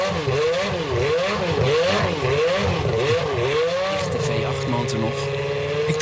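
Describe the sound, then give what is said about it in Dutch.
The engine of a 1991 Jordan 191, Michael Schumacher's former Formula 1 car, revs loudly, its pitch climbing and falling in quick repeated blips before settling into a sustained, high-pitched drone. “Ja, de Jordan 191 uit 1991.”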